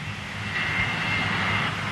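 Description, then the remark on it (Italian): A steady, droning airplane engine hum overhead as the plane keeps circling above the airport without landing, with a low rumble and a broad hiss holding at an even, moderately loud level throughout. No one speaks. “L'aereo continuava a volare sopra l'aeroporto senza decidersi ad atterrare.”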